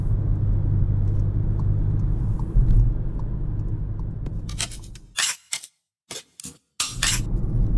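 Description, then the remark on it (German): Steady low engine and road rumble from inside a moving car for about five seconds, then a series of sharp, hissy bursts broken by brief moments of silence near the end. “Oh, hier muss ich runter.”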